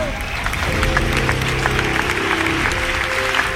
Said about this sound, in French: Un applaudissement.